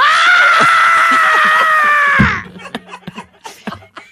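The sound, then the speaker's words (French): A voice lets out a long, loud, strained scream in imitation of a woman in labor, holding steady for about two seconds before breaking off into short, choppy bursts like gasping laughter. “Quand tu vas accoucher, je ne pourrai pas entendre ton dos crier.”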